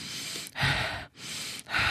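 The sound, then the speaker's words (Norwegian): Quick, shallow panting breaths in a steady rhythm, each airy inhale and exhale audible, with no talking; a demonstration of the fast, shallow breathing used during childbirth to hold back as the baby's head comes out. “da kan man godt bruke pusten litt raskere eller overfladisk pust for å prøve å lukke muskulaturen da.”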